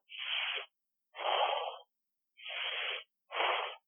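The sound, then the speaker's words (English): A voice imitates loud, heavy panting heard coming from outside, as loud as standing next to a steam locomotive: four harsh, breathy huffs in a slow, even rhythm with short pauses between them, with no talking. “we heard this heavy panting noise coming from outside. I mean, it was so loud, it was like standing next to a steam locomotive.”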